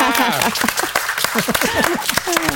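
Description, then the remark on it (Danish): A live audience seated at a live show applauds a guest with steady, dense clapping, while voices shout and cheer over it throughout. “Er I ikke klar på sådan at give den en rigtig fin stor hånd, så man rigtig kan høre jer i øh, og klappe?”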